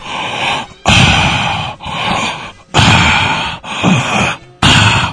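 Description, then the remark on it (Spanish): A person breathes heavily and deliberately into the microphone, about six loud, raspy in-and-out breaths in a steady rhythm, with no talking, showing how to control the breathing. “A ver, este, tienes que manejar la respiración, tienes que hacerle así.”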